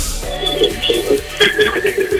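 A thin, radio-like voice on a phone line comes back as an echo, short phrases repeating a moment later with a hollow, slightly delayed tone at steady moderate loudness.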